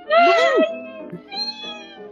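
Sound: cat meowing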